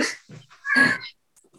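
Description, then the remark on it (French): A cat meows insistently, wanting to go outside, a few short plaintive cries with one longer, louder yowl in the middle, and no voices alongside. “je crois qu'il veut sortir, donc je suis désolée, sinon il ne va pas s'arrêter”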